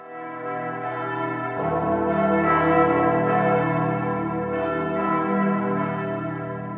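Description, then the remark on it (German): The seven bells of Bern Minster, hanging from thick, dark brown wooden beams several hundred years old in the tower high above the city, ring together, their deep overlapping tones swelling and sustaining into a dense, reverberant peal with no voices present. “Sieben Glocken hat es im Berner Münster. Die hängen im Turm hoch über der Stadt, hier, wo man über die Dächer sieht.”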